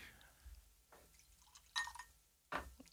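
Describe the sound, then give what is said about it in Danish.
Aperol for an Aperol spritz being poured into a glass over the equipment, heard as two short, splashy bursts of liquid with faint drips in between, against a quiet background. “Næste, næste gang, der tænker jeg, vi, vi ikke hælder op hen over udstyret”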